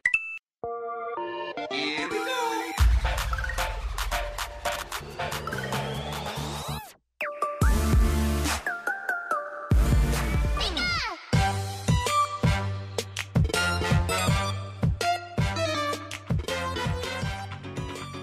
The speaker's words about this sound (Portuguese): Então, chega de enrolação, roda a vinheta.